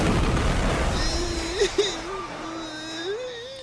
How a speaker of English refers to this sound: But suddenly, an explosion seemingly destroys the night cruiser in front of our stunned heroes!